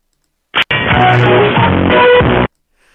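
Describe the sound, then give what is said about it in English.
A loud, tinny burst of copyrighted music, played by a caller over a phone line into a call-in show, starts after a brief click and runs about two seconds before cutting off abruptly into silence. “That's copyright music. You can't be doing that on my show.”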